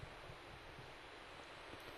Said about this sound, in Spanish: hemos perdido la comunicación, no sé si me sigues escuchando. Sí, te escucho, ah, perfecto. Sí, sí, ahora te, escucho de nuevo, pero hubo ahí un, lapso de tiempo que no te escuchábamos.